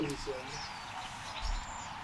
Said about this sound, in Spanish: No, pinche naturaleza está el 100, ¿no? En pinche, puro pajarito van a escuchar hoy.